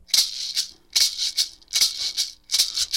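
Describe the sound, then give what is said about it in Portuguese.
A traditional percussion rattle, one of the typical percussion instruments played by tribe musicians, shaken in a steady, even rhythm, each shake a bright, hissing burst of seeds, with no voices over it. “outros quatro músicos da tribo que utilizam instrumentos percussivos típicos.”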